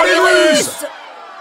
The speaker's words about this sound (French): Sous les fenêtres du petit appartement, la foule crie sa joie de la victoire polonaise contre les troupes de la Russie soviétique.